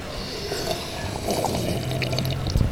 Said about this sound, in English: Uh, can we all take a sip of coffee together? Oh, oh, that's a great idea. That's a great idea. San Francisco, get your mugs ready. Count of three. Let's do this. One, two, and.